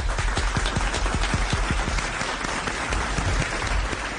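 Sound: applause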